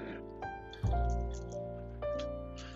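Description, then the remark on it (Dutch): Three or four small knocks inside a Leica camera lens, each followed by a brief metallic ring, as a loose part shifts and taps within the lens. Fairly quiet, with no talking. “Dat is mijn Leica lens.”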